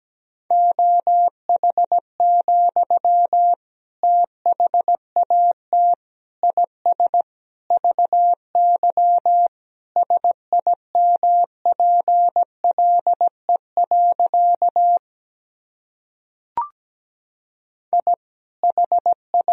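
Morse code practice sentences made from the top 500 words and abbreviations, sent at about 17 words per minute: a steady mid-pitched tone keyed into rapid dots and dashes, with a short pause and a click before the keying resumes.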